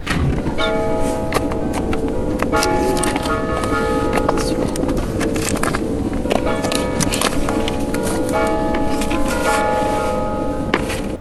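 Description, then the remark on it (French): Church bells in Lombardy, Italy ring in a continuous peal, with repeated strikes and lingering overlapping tones, fairly loud and steady over a dense rumble of background noise and faint voices. “nous avons passé un moment vraiment délicieux à leur côté, ponctué en plus par des cloches d'église qui sonnent un petit peu euh, différemment des nôtres.”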